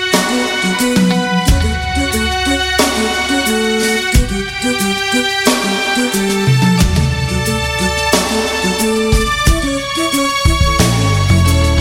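A loud, steady instrumental pop intro played on the radio station RWS, with sustained chords over a deep bass line that shifts every couple of seconds, rich harmonic layers, no voices.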